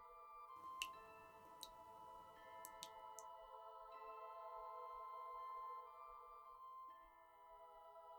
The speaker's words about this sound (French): Tu peux entendre des gouttes d'eau tomber sur le sol.